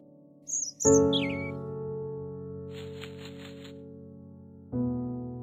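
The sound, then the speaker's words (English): A bird in a park gives a few quick, high chirps near the start as it flies away, soon overtaken by a loud, sustained droning tone that swells again near the end. “a bird flew away.”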